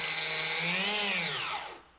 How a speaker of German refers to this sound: Wir haben uns dafür entschieden, das als Bierdeckel-Schussmaschine, kurz BDSM, zu bezeichnen. Kein Witz, das Ding gibt es wirklich. Ersonnen und gebaut an der Universität Bonn.